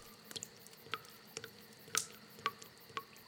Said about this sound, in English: In the middle of the night, she woke up and heard a dripping noise.